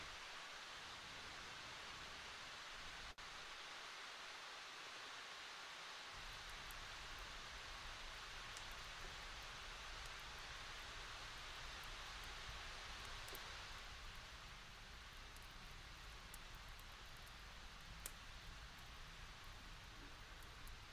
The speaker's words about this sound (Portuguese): A chuva lá fora diminui.